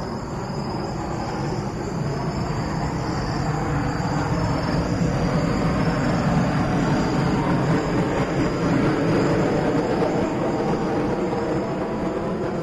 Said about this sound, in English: This is a recording uh, that I made in the Amazon uh, just north of Manaus. I was recording the biophony when a, a military jet flew very low overhead.